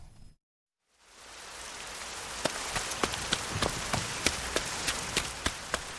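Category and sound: nature, rain falling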